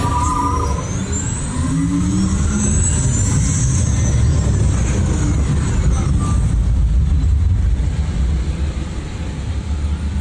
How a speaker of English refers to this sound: Commencing SimCar off-road and extreme weather sequence.